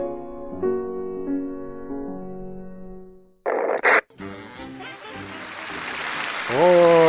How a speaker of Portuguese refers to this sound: Eu tô aqui teclando com os pés porque com as mãos eu tô aplaudindo, né?